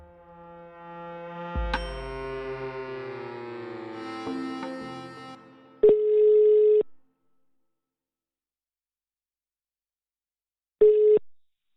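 After a brief stretch of melodic tones, an outgoing telephone call rings out twice: steady one-second beeps separated by a long pause, clear, with no one speaking.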